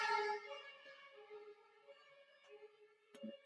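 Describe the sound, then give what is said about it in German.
An emergency siren wails outside on the street right by a home in a steady, sustained tone that starts fairly strong and then fades as it passes. A short knock sounds near the end. No one speaks. “Sirenen.”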